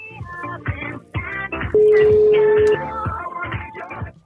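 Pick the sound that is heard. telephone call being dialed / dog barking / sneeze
telephone call being dialed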